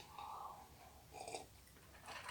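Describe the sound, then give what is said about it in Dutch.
Someone quietly sips iced coffee, with a couple of soft, wet slurping and swallowing noises and faint breathing, and no talking. “Dan was een slokje koffie.”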